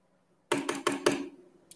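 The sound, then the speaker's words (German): Four quick, crisp computer mouse clicks in an irregular burst, followed after a short pause by one fainter click; no one speaks. “Ähm, man hört dich die ganze Zeit klicken im Hintergrund.”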